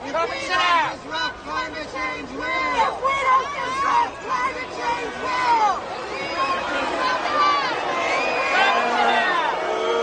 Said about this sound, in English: So you would think in an arena so big you wouldn't be able to hear it, but when it's awfully quiet like that, everybody heard it. People, as you heard, started to boo.